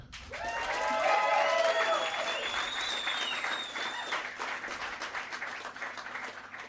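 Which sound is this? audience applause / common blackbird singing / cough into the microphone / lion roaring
audience applause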